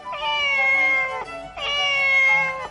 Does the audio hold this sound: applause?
no